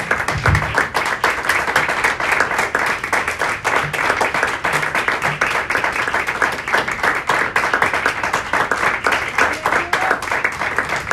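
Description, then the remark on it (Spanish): An audience applauds the Lord Jesus steadily for about eleven seconds, a dense, even wash of many hands clapping with sharp crackling peaks and no pause or voice breaking through. “Le damos un fuerte aplauso al Señor Jesús, hermanos.”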